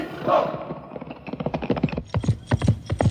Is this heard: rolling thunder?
no